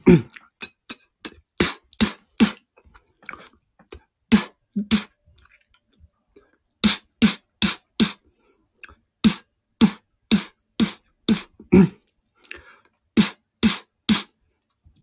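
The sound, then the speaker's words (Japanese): Live beatboxing performance with sharp, rhythmic vocal snare hits and clicks, a fast percussive pattern of short bursts separated by brief pauses, performed alone without speech. “ビートボックスパフォーマンス14 ライブ”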